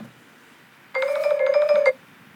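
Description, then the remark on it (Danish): A phone rings once as a colleague calls back, a short electronic burst of bright, warbling tones lasting about a second, clear, with quiet background before and after and no talking. “Der går ikke ret lang tid, så ringer min kollega tilbage.”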